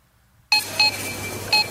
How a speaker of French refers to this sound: Ça, pour certains, c'est l'épicerie pour une semaine. Trois bips.